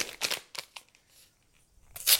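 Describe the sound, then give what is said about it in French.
A small paper sachet of baking powder, about 10 grams, is torn open while baking: a few short, crisp ripping bursts, then a pause of faint rustling before a final louder rip. No one speaks. “Je vais ajouter mon sachet de poudre à lever.”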